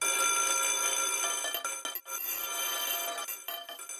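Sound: school bell ringing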